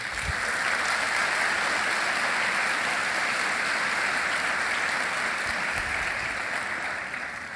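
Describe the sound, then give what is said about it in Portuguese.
A church audience applauds Jesus steadily, a dense, even wash of many hands clapping at a constant loud level that tapers slightly at the end, with no voices. “Você podia aplaudir Jesus por causa disso.”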